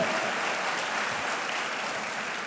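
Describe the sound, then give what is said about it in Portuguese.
Steady audience applause for the Lord fills the whole stretch, a dense, even wash of many hands clapping at a constant moderate loudness with no voices standing out. “Agora ela falou, agora aí, aplauda o Senhor.”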